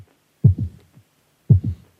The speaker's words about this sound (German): Das ist mein Herzschlag. Kurz bevor die Sendung losgeht.